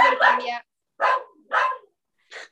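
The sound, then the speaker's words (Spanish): A dog barks in a short series of about four sharp barks, the first drawn out and the last shorter and softer, with brief silent gaps between them. “Es bien lindo el perro”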